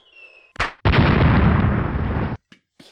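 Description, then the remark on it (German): A voice imitates the bang of a bird scarer: a short puff, then a loud, rough, bass-heavy boom sustained for about a second and a half before cutting off abruptly. “Ja, jedenfalls habe ich immer gedacht, es wäre irgendwie Vogelschreck.”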